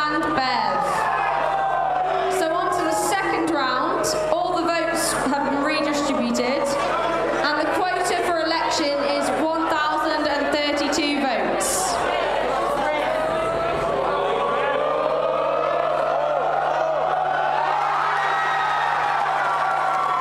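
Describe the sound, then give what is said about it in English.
An excited group of friends screams, whoops and cheers at a student election result, shaking the winner, with overlapping shouting voices and scattered claps filling the whole stretch at high volume. “I mean, I, I didn't believe it when my friends started shaking me and screaming, and and I mean that was very close.”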